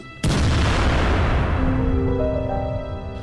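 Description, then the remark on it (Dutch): A sudden, massive booming blast erupts, followed by a long rumbling roar of cannon fire and mortar explosions as French forces bombard a surrounded city, lingering and slowly fading, with tonal ringing emerging in the sustained noise. “Het lawaai dat die kanonade veroorzaakt is voor zijn gevoelige oren werkelijk ondraaglijk.”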